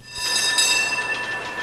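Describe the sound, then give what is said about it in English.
A San Francisco trolley car rolls along rails, a steady rumbling clatter topped by sustained high, metallic whining tones from the wheels, holding fairly loud throughout with no voices. “Trolley cars.”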